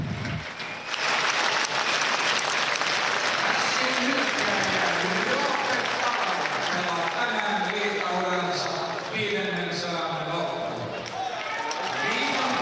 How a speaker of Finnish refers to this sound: Tänään tosiaan tuo puolen tuhatta liigaottelua Talajalle täyteen tulee. Ja siitä aplodit porilaisyleisöltä.